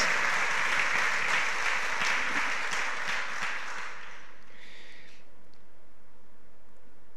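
An audience claps in sustained, dense applause for about four seconds, a steady crackling wash of many hands that fades out, leaving quiet afterward.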